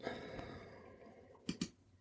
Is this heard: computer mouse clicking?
yes